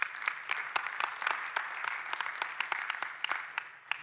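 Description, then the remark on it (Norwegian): Steady applause from an audience, many hands clapping in a dense, crackling wash with sharp individual claps popping out, sustained at moderate loudness throughout without voices. “Ja, jeg må gjerne klappe.”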